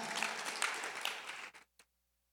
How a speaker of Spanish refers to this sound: Dele un aplauso al Señor y ocupe su lugar.